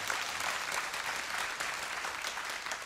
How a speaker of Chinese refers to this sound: 我们再给神一个热烈的掌声，感谢主。